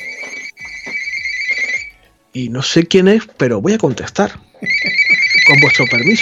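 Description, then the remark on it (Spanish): A telephone rings with a steady, bright electronic trill, repeating in bursts before and after a man speaks and laughs over it; the ringing is fairly loud. “Eso es el teléfono, queridos amigos.”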